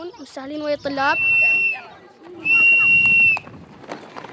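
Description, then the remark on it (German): Children rush back into their classrooms at the end of break at a mud-brick school, in a lively bustle of high-pitched shouts and calls, with a long shrill squeal rising above the busy background chatter. “Immer nach Pausenende stürmen sie zurück in ihre Klassenzimmer, um weiter zu lernen.”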